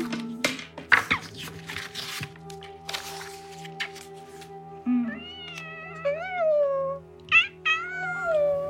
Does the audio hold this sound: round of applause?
no